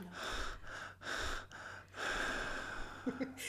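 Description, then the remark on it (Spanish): A person deliberately performs loud, exaggerated heavy breathing and sharp gasps, imitating how they would sound in an orgy, in three or four rhythmic breathy bursts with brief pauses between them, and no speech. “Oye, ¿tú si estuvieras en plena orgía, cómo, cómo sonarías?”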